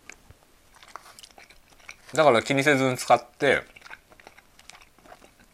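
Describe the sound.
Soft chewing while eating a convenience-store boxed lunch during a lunch-break chat, with small crunchy, clicky mouth noises running throughout, briefly interrupted by a short spoken phrase in the middle.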